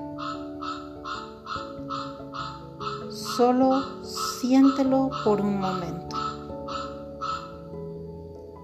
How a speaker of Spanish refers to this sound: Mi rana. Si se escucha algo, es mi rana.